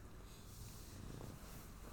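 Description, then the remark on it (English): A kitten purrs softly and steadily while its feet are being massaged, a low continuous rumbling vibration that holds throughout with no voices over it. “Massage the kitten feet.”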